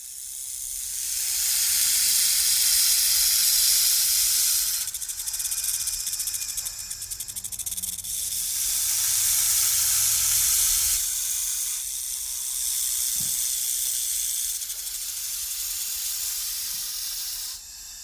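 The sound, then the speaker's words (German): A spectacled cobra hisses in long, breathy bursts, about four drawn-out swells of airy, high-pitched noise rising and fading over eighteen seconds, with no voices. “Dann fragt er die Brigitte, die Brillenschlange, die ebenfalls gerne mitkommen möchte.”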